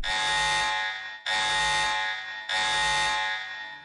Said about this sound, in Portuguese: Lá no final a gente solta o alarme de novo pros spoilers de tudo.